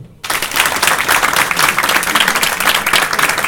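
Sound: audience clapping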